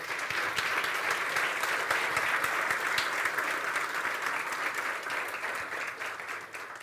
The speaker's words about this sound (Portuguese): Você pode dar outra salva de palmas no nome do Senhor?